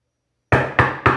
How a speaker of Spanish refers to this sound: Los golpes... Los golpes se sintieron debajo de la mesa.